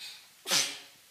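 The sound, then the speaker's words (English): One quick, breathy sneeze bursts out on its own, soft, lasting only a moment before fading into quiet. “Bless you.”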